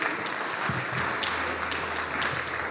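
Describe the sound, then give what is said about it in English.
Steady applause from a church audience at Sunday worship, thanking high school students and their youth leaders, a dense wash of many hands clapping at an even, moderate loudness for a few seconds with no voices standing out. “Um, and also, yeah, you clap for that too”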